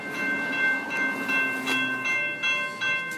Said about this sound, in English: Oh, we're going to pause because the bells are ringing, so it's going to make it a little loud.